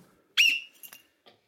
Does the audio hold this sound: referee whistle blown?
yes